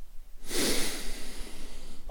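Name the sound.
audible breathing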